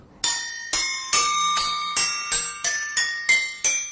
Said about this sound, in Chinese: 他负责的是击奏乐器当中的云锣。 啊，这是音高。 音高。